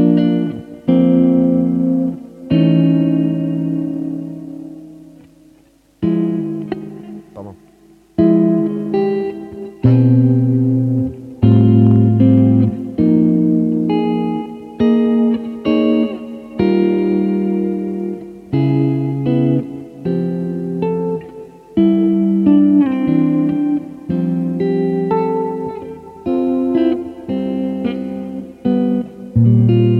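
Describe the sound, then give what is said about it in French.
Electric guitar strummed back and forth with the fingers, demonstrated for beginners, chords ringing in a steady rhythm with brief pauses between passages; bright, moderately loud, with no talking over it. “on peut même faire l'aller-retour avec les doigts comme ceci”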